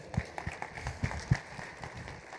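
A crowd applauds, a steady patter of many hands clapping together at moderate volume, somewhat distant, with no voices standing out.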